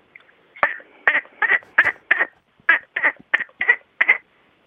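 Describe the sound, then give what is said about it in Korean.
A person imitates a duck with about ten nasal, raspy quacks in a quick, uneven series, fairly loud, with no talking around them. “저 오리 소리 냈거든요.”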